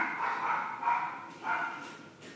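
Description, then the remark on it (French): A dog barks several times nearby in quick, agitated bursts, moderately loud, with short yelping tones and no one speaking over it. “Il y a un chien, qui s'énerve à côté.”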